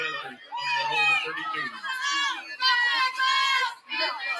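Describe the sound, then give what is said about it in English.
A large crowd at a high school football game on a rainy night roars with many overlapping voices, including high-pitched shouts and cheers, sustained and fairly loud throughout with brief surges, like spectators in stands. “Well, there's a really big crowd for a night with as much rain as there is.”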